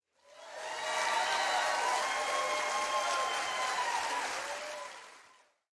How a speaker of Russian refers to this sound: Тут надо вставить э, такой звук с аплодисментами.